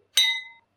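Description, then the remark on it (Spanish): A single bright clink of wine glasses touching in a toast to health, its clear ringing tone fading out over about half a second with nothing else around it. “yo hoy estoy con mi copita de vino en mano, porque quiero brindar contigo, porque estamos vivas y en salud.”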